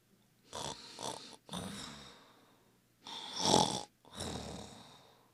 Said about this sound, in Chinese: 这回，好饿的小蛇，真真是吃饱了。它靠在一块石头背后，开始打呼睡觉了。